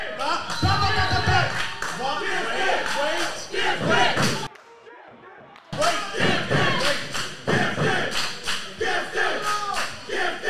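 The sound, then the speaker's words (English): A large crowd at a tag-team fighting event roars and cheers wildly for the team The Gifted, loud and sustained, with whoops, shouts and scattered thumps; the noise drops briefly to a thin hush midway before surging back just as loud. “This crowd has come unhinged for the gifted.”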